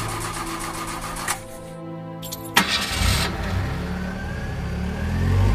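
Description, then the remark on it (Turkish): An old car engine cranks in very cold weather with a rapid rattling starter whir, stutters through a brief pause, then catches and settles into a rough, steady idle. No one speaks. “Hava o kadar soğumuştu ki bizim emektarı güçlükle çalıştırdım.”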